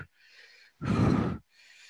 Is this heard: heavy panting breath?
yes